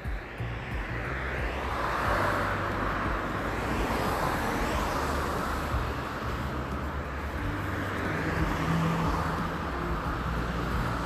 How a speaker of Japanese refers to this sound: いいですね車の BGM がねいい感じでだと思います